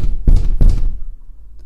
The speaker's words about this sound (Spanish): La puerta se cierra bastante bien, escuchen. Y ya, Estoy empujando y no provoca ningún levantamiento de manija.